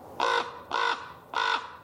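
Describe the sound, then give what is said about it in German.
A raven gives three harsh, evenly spaced caws, each a short raspy burst with a brief pause between, heard alone. “Raben, schwarz, schlau und göttlich.”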